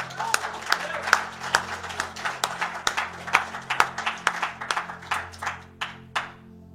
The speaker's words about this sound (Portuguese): Você recebe essa palavra para a tua vida? Vamos aplaudir Jesus.